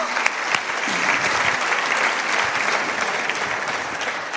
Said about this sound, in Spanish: Hombres aplaudan. Si quieren que su mujer algún día... ¿No?